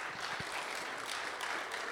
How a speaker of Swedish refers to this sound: Ja, det är värt en applåd alltså.